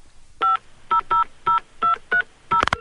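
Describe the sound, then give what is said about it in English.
A rapid series of touch-tone beeps as a phone number is dialed, seven short steady dual tones in a quick rhythm, ending with a brief electronic chirp or click, clear with no talking. “Well, just call her again,”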